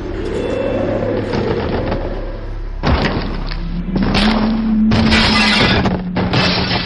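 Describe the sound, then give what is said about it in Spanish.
A house collapses in a loud, rumbling crash with repeated heavy thuds and bursts of crashing debris over several seconds, forceful, with no one talking. “Ahora sí prácticamente se cayó esto.”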